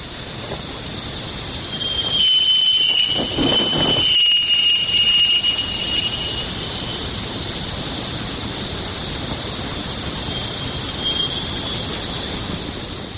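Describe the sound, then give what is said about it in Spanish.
Jupiter radio emissions recorded by the Voyager probe, rendered as sound: a steady wash of dense, hissing static with a thin high whistling tone and brief warbling bursts early on, continuous throughout with no voices. “Escuchamos a Júpiter, ¿cómo suena Júpiter? Vamos a escucharlo.”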